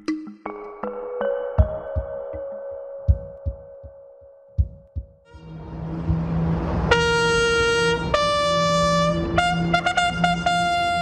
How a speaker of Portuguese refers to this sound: Banda militar.